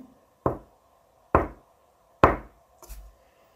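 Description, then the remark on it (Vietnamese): High heels tapping on the ground in a huge factory workshop: three sharp, evenly spaced clacks at a slow, measured pace, then a softer, scuffed fourth step, over a faint steady hum. “Nhìn vào trong, nhà xưởng vô cùng to lớn tràn ngập màu đỏ sẫm, mơ hồ, giống như là có một màn xương lượn lờ bao quanh, nơi xương dày nhất lại vang lên tiếng giày cao gót gõ trên mặt đất.”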